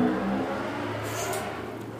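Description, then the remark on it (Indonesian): A car engine revs amid steady street traffic on the road beside a studio, a continuous throaty hum with a brief higher whine, heard on its own without voices. “ya ya itulah ya kan ya keramaian lalu lintas di sekitar studio nah kita.”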